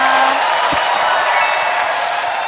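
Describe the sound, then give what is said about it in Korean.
Sustained applause from a standing audience, asked by the host to clap once more, fills the whole stretch, a dense steady wash of many hands clapping at an even loudness, with a faint murmur of voices mixed underneath. “자, 박수 다시 한번 부탁드리겠습니다.”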